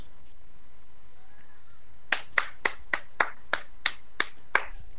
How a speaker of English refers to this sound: That's me standing up and applauding both of you gentlemen.